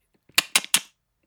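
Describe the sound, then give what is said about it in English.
Three crisp tongue clicks made with the mouth as the command for an animal to give high fives, snapped out in quick even succession, like someone calling a cat. No talking, just brief quiet before and after. “you know, like I'm calling a little, like a little animal, like a house cat or something.”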